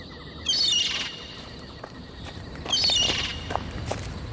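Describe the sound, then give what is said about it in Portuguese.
Someone imitates a seagull with two loud, shrill cries a couple of seconds apart, each a quick rising squawk, over a faint, steady rustling background with no talking. “Vou soltar um grito de gaivota para ele perceber que seu irmão o espera.”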